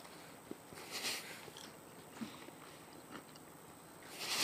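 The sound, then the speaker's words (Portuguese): Soft, intermittent chewing and mouth noises of people eating burgers at lunchtime, with faint scattered crunches and rustles and no one talking. “Tem um silêncio de mastigação rolando no ambiente.”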